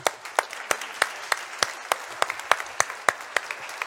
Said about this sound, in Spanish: Un aplauso para ustedes también.